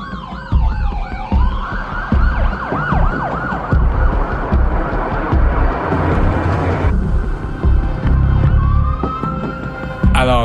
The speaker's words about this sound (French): Les des, sirènes de police, les gyrophares, ça sort de partout. 6-7 euh, voitures surgissent en trombe sur la scène.